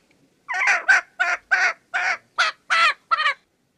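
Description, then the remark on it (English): A chicken squawks loudly, letting out about eight harsh, rapid cries in quick succession, with no voices around it. “damn chicken quiet!”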